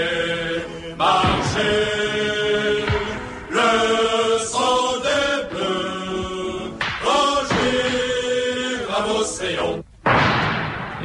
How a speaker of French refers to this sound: c'était une Marseillaise royaliste ah, oui, de la chouannerie. C'est peut-être pour ça qu'on entend des coups de feu.